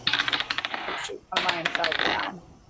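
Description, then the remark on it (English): Dice clatter across a hard tabletop in two quick bursts of sharp, rattling clicks, fairly loud, with a brief pause between the rolls, as a constitution saving throw is rolled with advantage in a tabletop role-playing game, landing a natural 20. “Oh, nat 20.”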